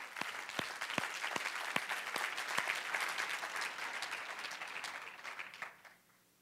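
An audience applauds steadily, a dense wash of many hands clapping with a few sharper individual claps standing out, then the applause tapers off near the end.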